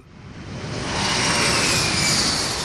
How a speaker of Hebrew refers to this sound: שומעים את המטוס שממריא עכשיו? הוא בדרך לעוד קריירה בינלאומית.